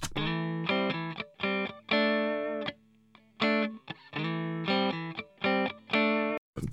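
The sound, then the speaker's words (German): A dry electric guitar with its reverb turned off plays alone, loud: a rhythmic run of chord stabs and a few held chords, each stopping abruptly with no reverb tail. “Okay, die Gitarre.”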